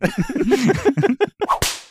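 whip crack sound effect

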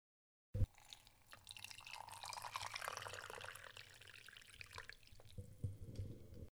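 pouring a drink

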